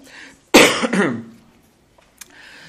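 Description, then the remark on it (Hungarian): A loud cough at about half a second from a speaker recovering from an illness whose bronchi are not clear, a harsh burst followed by a second rougher expulsion, then quiet with a faint click; low murmur before and after. “Illetve még egy exkuzációt engedjetek meg, hogy lábadozok egy betegségből, ezért gyengébb vagyok a szokottnál, köhétserek, mert a hörgőm nem tiszta, de szerintem már nem vagyok veszélyes, tehát aggódnatok nem kell.”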